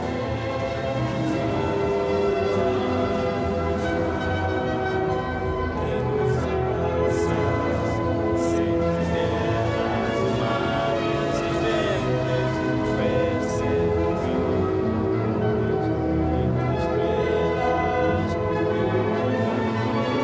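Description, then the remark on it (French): The national anthem of Cape Verde plays before a match as full, sustained instrumental music, steady and fairly loud throughout, with rich layered tones and occasional bright accents, and no voices speaking over it. “Allez c'est parti, on écoute le euh, l'hymne national du Cap Vert et on revient vers vous juste après ça.”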